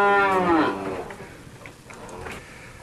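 A single loud cow moo, a rich low drawn-out call that fades quickly, followed by quiet background noise with no talking.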